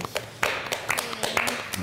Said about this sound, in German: Die Leute klatschen und du siehst auch, wie ein paar sich eingehakt haben bei dem letzten Lied und so ein bisschen mitgeschunkelt haben und ja, sich jetzt äh, klatschen alle